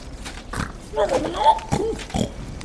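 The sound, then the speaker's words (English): Several heavy, snorting breaths with a deep, grunting rumble roar forth from a ragged cave in a great wall of rock, rising and falling in uneven bursts, moderately loud, with no talking. “Following the babbling to a brook, the brook to a creek, the creek to a stream, and the stream to a great wall of rock, they met with the rumble of deep, heavy breaths roaring forth from a ragged cave.”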